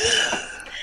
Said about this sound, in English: That one sounded like a sneeze compared to the other hiccups.